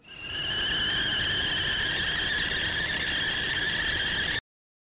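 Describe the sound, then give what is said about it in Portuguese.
A kettle whistles with a steady, high-pitched shrill tone holding several bright overtones, rising quickly and sustaining loudly for about four seconds before cutting off abruptly. “E a nossa chaleira já tá ligada.”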